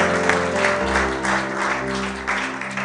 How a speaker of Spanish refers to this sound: Podrías darle un aplauso a Jesús.